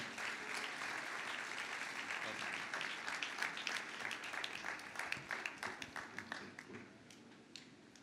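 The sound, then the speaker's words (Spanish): Loud applause of praise to the Lord from an audience, a dense wash of many hands clapping that holds steady, then thins into scattered individual claps before fading out. “Fuerte aplauso de alabanza al Señor.”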